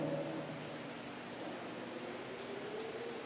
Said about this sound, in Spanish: Estábamos utilizando esos capotes famosos, los amarillos, porque estaba lloviendo. Y lloviendo más fuerte que ahorita.